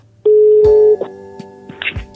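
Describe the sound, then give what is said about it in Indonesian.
A steady electronic telephone tone holds for most of a second, followed by a few short clicks and beeps like a call connecting, loud with no one speaking, as a call is placed to a doctor. “Langsung kita telepon aja ya.”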